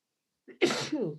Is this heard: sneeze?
yes